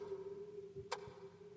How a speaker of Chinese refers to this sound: 忽然，又有一个声音传来，那是大震的电子表撞击铁板的声音。